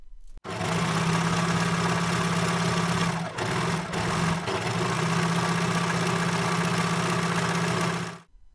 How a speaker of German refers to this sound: Das, was ihr da gerade gehört habt, war eine Nähmaschine